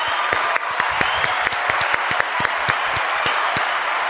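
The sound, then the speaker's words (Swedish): A steady wash of applause from a group, many hands clapping in a dense, continuous patter with sharp individual claps standing out, sustained for about four seconds before stopping abruptly. “alltid när det är applåder då klappar jag alltid för länge.”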